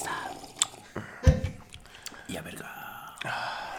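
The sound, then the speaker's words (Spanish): A quiet slurping sip of a drink followed by soft swallowing and wet mouth sounds, with a brief breathy exhale; no clear speech. “Ah, traguito para los, ah, escuchas. El sorbidito, para escuchas.”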